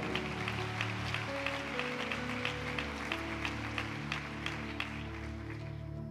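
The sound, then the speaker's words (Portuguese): An audience at an evening church service applauds with dense, steady clapping that holds for several seconds, while sustained keyboard-like tones hum underneath, then the clapping gradually thins out. “Vamos aplaudir direito, vai.”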